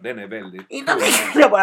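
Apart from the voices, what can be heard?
sneeze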